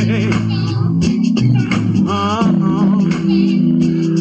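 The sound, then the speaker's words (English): A laid-back, old-school groove plays steadily with warm bass and rhythmic instrumentation, sung vocals weaving over it, loud throughout. “Just a little old school groove.”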